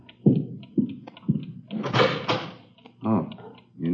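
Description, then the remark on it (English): A door is pulled open, with a few knocking clunks followed by a rough scraping slide, and a brief voice near the end. “Okay, I'll cover you. Open it.”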